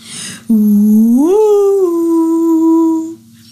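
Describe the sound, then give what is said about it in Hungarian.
A sea creature's long, wailing summoning song: one sustained howl-like note that starts low, swoops upward, then holds steady for a few seconds. It is loud and alone, with no talking. “Ez a toborzó dal, amelyet minden tengeri állat ismer.”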